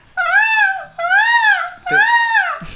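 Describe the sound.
A person imitates a peacock's call with three loud, drawn-out nasal wails, each rising and falling in pitch and separated by short pauses, with no talking.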